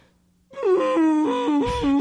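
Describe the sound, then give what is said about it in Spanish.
A voice mimics the blaring alarm horn meant to announce Ragnarok, a loud sustained wailing tone that rises and dips in pitch for about a second and a half after a brief quiet start. “Entonces, al divisar tremenda longaniza, hará sonar el galajón, el cuerno de alarma destinado a anunciar el Ragnarok.”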